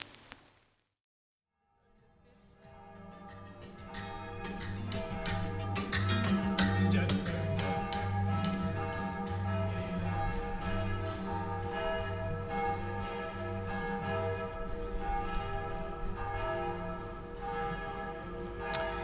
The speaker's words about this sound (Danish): Det her er lyden af København i dag